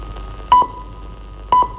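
Two short, clear electronic tones about a second apart, each a brief steady pip with a sharp onset, over faint background hiss: the exact-time signal of Romanian radio from Bucharest, marking 10 o'clock.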